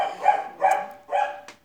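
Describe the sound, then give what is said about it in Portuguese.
A dog barks three times in a steady rhythm, each bark a sharp, harmonic yelp of moderate loudness, with no talking over it. “Não precisava ter falado, olha o cachorro latindo, como se.”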